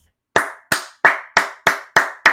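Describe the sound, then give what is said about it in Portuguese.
Seven crisp hand claps in a slow, steady rhythm, fairly loud, each one sharp and evenly spaced, with no voices around them. “Palmas.”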